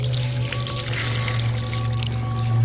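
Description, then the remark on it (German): Water splashes and sloshes continuously for a few seconds as divers climb out of the water in a cave, steady, over a constant low hum, with no voices. “Warte erst mal raus aus dem Wasser.”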